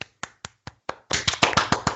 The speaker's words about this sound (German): Einmal Applaus